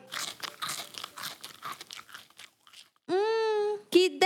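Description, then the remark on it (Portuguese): Crisp, juicy crunching of fresh fruit picked at grandma's house, including an orange, being chewed in quick, irregular bites, then the chewing stops and a loud, sustained hum of enjoyment follows. “Mas antes disso, vou comer minhas frutinhas deliciosas que colhi lá na casa da vovó.”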